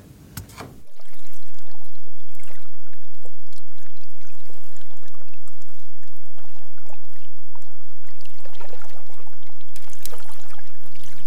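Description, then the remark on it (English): Muffled, steady wash of water heard from underwater after a freshwater pulse crashed the salinity, with waves rolling and crashing in a continuous rumble, punctuated by a couple of louder surging bursts near the start and end. “All you can really hear are waves crashing and some random noise.”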